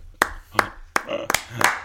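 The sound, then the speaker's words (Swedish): A short, sparse burst of applause: about five or six sharp hand claps at an uneven, unhurried pace, with a faint murmur of voice between them. “Så eh, eh vi tycker vi ger en klassisk applåd”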